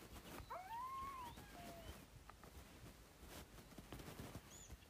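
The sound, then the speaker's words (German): A fox howls once from a video game, a short rising-then-falling wail with a thin whiny tone, heard over a steady bed of noisy game ambience with no talking. “Scheiß Fuchs.”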